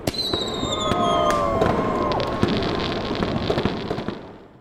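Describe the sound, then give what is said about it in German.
Fireworks over a city at midnight on New Year's Eve (31 December) crackle and pop continuously over a dense rumbling wash, with several whistling rockets gliding downward in pitch early on; many sharp bangs scattered throughout, no voices. “Dezember, fahren viele Menschen um 12 Uhr nachts mit der Ringbahn und bewundern die Feuerwerke in der ganzen Stadt.”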